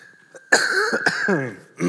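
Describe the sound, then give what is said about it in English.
A single loud cough bursts out with a raspy, drawn-out rattle, followed by a brief pause and the start of another harsh cough; a faint steady tone hums underneath. “Sorry, one more cough coming.”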